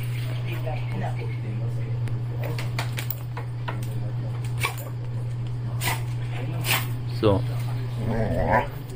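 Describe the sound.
A dog at a bar in a seating area barks and whimpers in short, scattered bursts over a steady low hum, with people talking and brief voice snippets mixed in.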